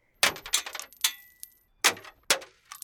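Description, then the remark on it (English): Coins clang and clink into a metal temple offering box with a trumpet-shaped top in several bright, ringing bursts, irregularly spaced, with a short metallic rattle trailing after each drop. “Whenever the coins would go into those boxes, you would hear the sound of coins hitting the metal. And the more coins someone would give, the more clanging and clicking the coins made.”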